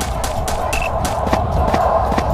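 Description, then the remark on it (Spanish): Footsteps tap out a steady, even rhythm of short, sharp impacts, roughly four per second, over a constant low background hum. No one speaks. “Porque se escuchan dos pasos en la que no es. Uno, dos.”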